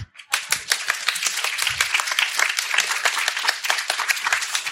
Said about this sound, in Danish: Det skal være sådan, Aarhus Festu, er I der? Ja! Ej, så skal der klappes.